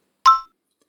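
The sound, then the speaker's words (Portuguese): A single bright ding from a little bell, struck once with a quick metallic ring that fades within half a second, clear against total silence. “Agora vamos repetir o que a Bela disse depois do sininho.”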